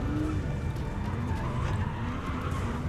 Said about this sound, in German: Und äh, dann hört ihr das Donnern von äh, Motoren in eure Richtung.